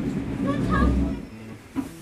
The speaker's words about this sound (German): S3 in Richtung Pinneberg. Nächste Station, Hauptbahnhof. Übergang zu allen S- und U-Bahn-Linien sowie zum Regional- und Fernverkehr. Bitte achten Sie beim Ausstieg auf den Abstand zwischen Zug und Bahnsteigkante